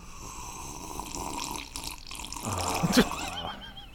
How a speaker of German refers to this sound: Kannst du da ein bisschen an dem Kaffee einmal schlürfen?